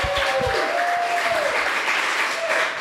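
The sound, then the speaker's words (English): An audience in Bali applauds loudly and steadily, dense clapping filling the whole moment, with a faint whistle or tone sliding through the noise. “Everybody give her a big round of applause.”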